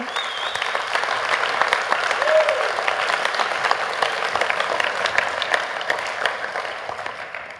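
An audience claps steadily for several seconds, a dense, even wash of many hands with a few brief tonal sounds rising above the applause.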